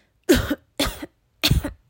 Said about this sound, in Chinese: 躲在橱柜里的妈妈这时候轻轻的咳嗽，嗯，他心里可不这么想。